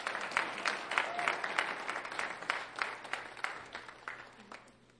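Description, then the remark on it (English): An audience at a church Christmas service claps together as the band comes back up, in a steady, fairly quick rhythm, the sharp beats gradually growing softer and thinner until the clapping fades near the end. “Somebody start clapping right now because I'm going to preach like a 20 minute sermon.”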